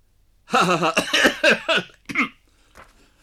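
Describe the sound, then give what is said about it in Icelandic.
A fit of harsh, raspy coughing, several quick coughs running together with wheezing gasps between them, followed by one last short cough and a faint breath. “Með hóst á andköfum.”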